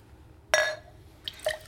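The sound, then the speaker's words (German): Water being poured into a glass, heard as a bright glassy ring with a short liquid splash, followed a moment later by a couple of lighter clinks, with no talking. “Äh, Wasser?”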